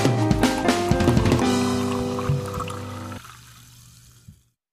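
Fizzy lemonade pours into a glass, a bright splashing stream with rising tone as it fills, then a brief settling fizz before it cuts off. No voices.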